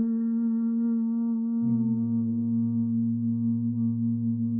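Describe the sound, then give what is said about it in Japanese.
A steady closed-mouth hum held on one low pitch, with a second, deeper tone joining partway through and sustaining to the end, both smooth and continuous like a buzzing bee. It is Bhramari pranayama breathing: after inhaling through the nose with the mouth closed, a person hums from the back of the throat while exhaling through the nose, imitating a bee's wingbeat. “一度、あの、口を閉じた状態で、鼻から息を吸って、鼻からそのまま、うー”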